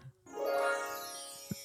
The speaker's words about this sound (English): Ah, yeah. Flashback sequence. That's right. That's our flashback button.